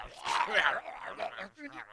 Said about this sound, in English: we're here uh, showing how our competitor TP for Tots is been having dog cages full of live wolves outside of that facility. Now, as you can see, looking right over there, you can see the wolves.